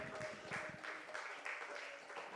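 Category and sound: crowd, audience hand clapping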